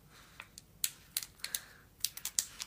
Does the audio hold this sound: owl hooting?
no